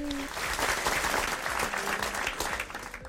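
A burst of applause from a small group welcoming a guest as she is introduced, dense rapid clapping sustained for a few seconds at steady loudness, with faint voices mixed in briefly at the start.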